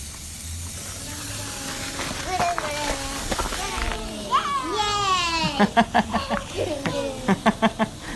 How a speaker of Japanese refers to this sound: なんだこのなんだこの花火回す集団謎の怪しい集団みたいな